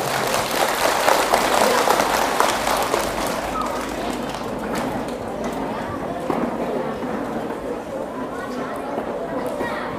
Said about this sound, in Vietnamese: nếu các cháu thấy rằng là việc làm này là rất nên làm và làm dễ như là ăn cơm uống nước thì hãy dành một tràng vỗ tay thật lớn thật giòn giả